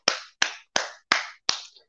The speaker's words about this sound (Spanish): Entonces, antes que nada, vamos a darle una bienvenida, un aplauso